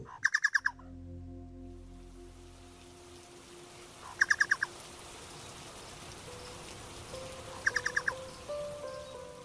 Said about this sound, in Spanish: El chucao, ustedes ya lo están escuchando, una especie de ave endémica del centro sur de Chile, es un testigo permanente de las actividades que giran en torno a los bosques del país.